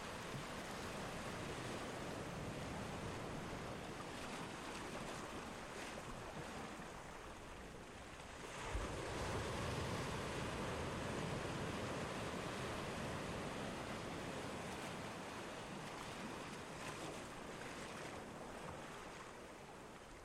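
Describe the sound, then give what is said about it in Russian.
Steady ocean surf rushes continuously toward the shore, with a fuller wave surging in around the middle before settling back into an even wash of water. No voices. “Вдыхайте запах океана.”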